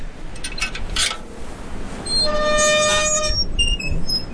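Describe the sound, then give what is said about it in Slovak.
A small wrought-iron gate in the round concrete fence around a Lourdes chapel of the Virgin Mary swings open: a short metallic clink, then a loud, drawn-out creaking squeal from the hinges, steady and high-pitched, lasting about a second before tapering off. No one speaks. “No a tu sa nachádza taká kovaná malička brána, ktorú budeme otvárať.”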